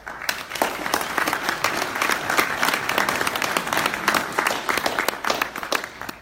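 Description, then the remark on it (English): An audience at a group event applauds itself steadily for several seconds, a dense, sustained wash of many hands clapping at an even loudness with no voices standing out. “So give yourselves a, a round of applause.”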